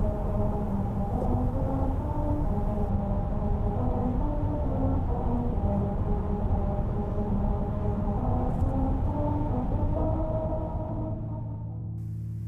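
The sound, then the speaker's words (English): Tires rolling over the grooves of the musical road in Lancaster, California produce a steady, loud droning hum with pitched tones that step up and down like an off-key tune, because a math error left too much space between the grooves; it continues about twelve seconds before fading slightly. “Grooves are strategically carved into the road surface that change the sound of your tires as you drive over it at the correct speed.”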